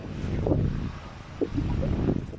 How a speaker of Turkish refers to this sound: Şiddetli rüzgar var. Kopmalar, devrilmeler, elektrik kesintileri ve pek çok kazaya neden oluyor fırtına.